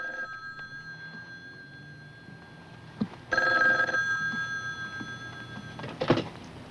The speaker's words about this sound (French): le téléphone se met à sonner à l'autre bout du téléphone